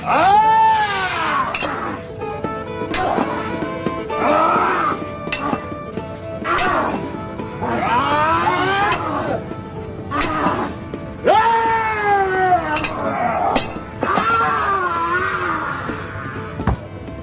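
A lion roars and groans over and over while dying in a fight, each loud, drawn-out cry rising and falling, broken up by sharp thuds and scuffles as the calls weaken toward the end.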